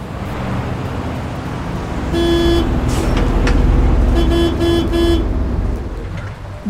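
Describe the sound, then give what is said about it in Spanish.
Steady rumble of city traffic with a bus engine droning, heard while riding the bus in the city as it rains, while a car horn honks in a long blast and then a couple of shorter toots. No one speaks. “Yo en el camión”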